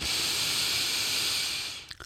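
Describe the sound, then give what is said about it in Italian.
A long, steady intake of breath, airy and hissing, held for nearly two seconds before tapering off, with no talking. “Prendete un grosso respiro.”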